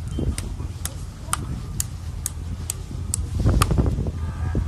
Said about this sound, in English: All right, you can, you can hear the whipping. Like, that's him getting hit 50 times.